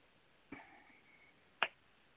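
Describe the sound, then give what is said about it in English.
Two sharp finger snaps about a second apart, the first slightly softer with a brief ringing tail, the second crisper and louder, with no talking. “And when you feel comfortable, you can open your eyes and snap your fingers.”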